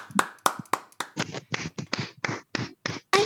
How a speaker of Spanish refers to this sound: Un aplauso, por favor.